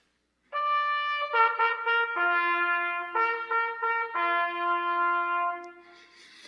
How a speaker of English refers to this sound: That's the word that's used here, and it has to do with a trumpet blast.